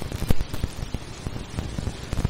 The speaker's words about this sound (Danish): Stormen Gunnar rammer i øjeblikket Svaneborg, og vi beder alle byens beboere om at opholde sig indendørs.